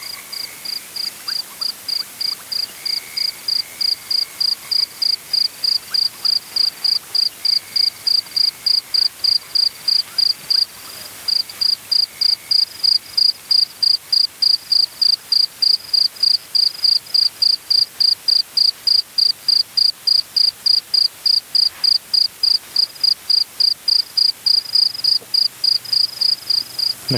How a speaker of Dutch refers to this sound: dat er ook geluiden van de krekels en van de vogels die komen uit het geluidenarchief van Abbey Road. dus ze zijn niet allemaal van …. Hier hoor je een klein stukje van die, eh, van die krekels.